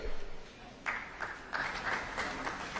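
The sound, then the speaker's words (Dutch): A modest round of applause in the European Parliament chamber, scattered clapping that swells into a steady patter of many hands at moderate volume, with no voices over it. “Hij kreeg een eh, bescheiden applaus hier in het eh, Europese parlement.”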